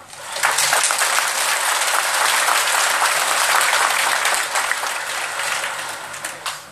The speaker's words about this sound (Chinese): 鼓掌鼓的不热烈，因为没听懂，稍微讲的深一点就听不懂了。